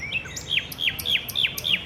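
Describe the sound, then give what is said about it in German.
A nightingale sings a rapid series of repeated, sharp descending whistles in a steady rhythm, clear, with a faint low background hum and no voices. “Auch Nachtigallengesang wird nicht immer als angenehm empfunden.”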